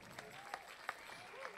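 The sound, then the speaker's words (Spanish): Soft, steady audience applause, a dense patter of many hands with a few sharper claps standing out, under a faint murmur of voices. “con un fuerte aplauso.”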